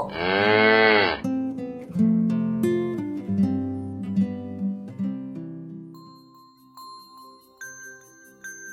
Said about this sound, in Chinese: 第二天早上，真的是魔鬼把我们吵醒了。这个魔鬼是谁呢？呵呵，它是一头正在吃草的牛。